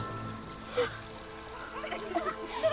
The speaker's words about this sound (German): Und dieses Wasser hier überall. Und in der Nase. Und in den Ohren.